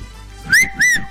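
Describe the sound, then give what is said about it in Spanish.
A loud wolf whistle in two quick parts, the first rising sharply and the second sweeping up then gliding down, with no one talking. “Hay que chiflar así, además.”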